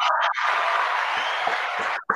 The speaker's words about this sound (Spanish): Uno es que lo he puesto antes en el chat, que Nintendo va a arreglar el drift ah, de los Joy-Con gratis en toda Europa, fuera de garantía. Un aplauso.